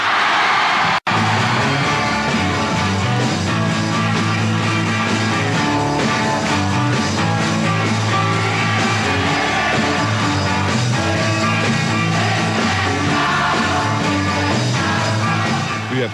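A dense wall of high-pitched crowd screaming fills a hall, constant and loud, with live rock music pounding underneath for the whole stretch.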